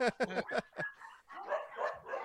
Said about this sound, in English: Okay, we're back now that the dogs have calmed down.